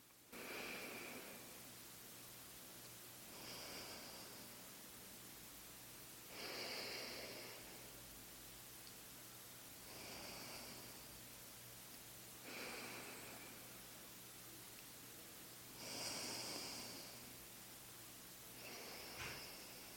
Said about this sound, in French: Donc je vais faire quelques cycles et vous le faites aussi sans forcer votre respiration. Donc on y va, on bouche la narine droite et j'inspire par la gauche.